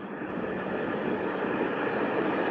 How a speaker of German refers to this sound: Zug!